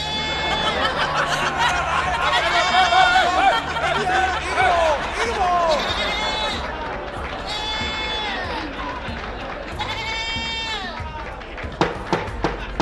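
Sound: goat bleating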